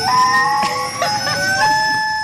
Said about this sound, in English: It is a rubber chicken head attached to the hose of a vacuum.